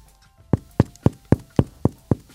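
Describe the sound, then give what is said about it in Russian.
Seven quick, evenly spaced knocks on the flat bottom of a round bread loaf held in the left hand, knocked at the microphone, fairly loud, each a dull hollow thump like a tambourine, with no talking in between; the hollow sound shows the bread is fully baked. “И по донышку ты должен постучать.”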